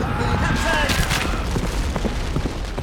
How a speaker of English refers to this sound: The first shell fired by the Russian struck Nolan a fatal blow.